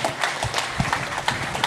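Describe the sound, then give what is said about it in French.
A crowd applauds after a person's testimony, a dense patter of many hands clapping at once, moderately loud and continuous with no voices on top. “On peut l'applaudir.”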